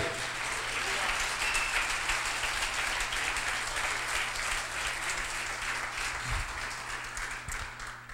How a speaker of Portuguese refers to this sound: Vamos dar uma salva de palmas a Jesus como verdadeiros homens de Deus, vai.